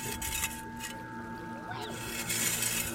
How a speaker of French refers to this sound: Vous savez que votre pelle fait un joli bruit sur le sable. Oui. ça, glisse et puis on entend la